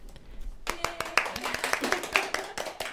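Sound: small round of applause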